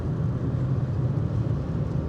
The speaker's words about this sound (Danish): Nu kører jeg op over broen